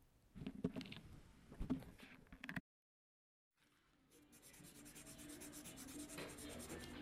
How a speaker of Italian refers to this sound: Ecco mia madre che entra con la chiave.